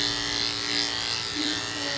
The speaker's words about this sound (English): We're using men's nostril shavers to do the small shapes with so we can get the edges and stuff really straight. Mainly dog, small dog clippers, thinning scissors, all dog grooming equipment though.